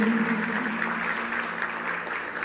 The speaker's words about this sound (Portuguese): Se você pode, se coloque de pé e aplauda aquele que te perdoou. Jesus Cristo.